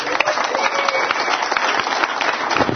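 Steady applause from a crowd, many hands clapping in a dense, continuous crackle that holds at an even, fairly loud level throughout, with no voices standing out.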